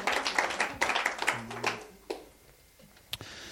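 A church crowd at Connectkerk applauds the teenagers with dense, crackling clapping that peaks early, then thins into scattered claps and fades, with a few isolated sharp claps near the end.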